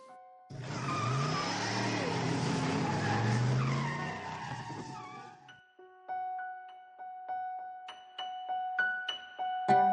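A car tears off with loud, screeching tires and a roaring engine for several seconds, intense, before the noise cuts away and gentle chiming music takes over.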